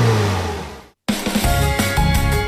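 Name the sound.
car engine revving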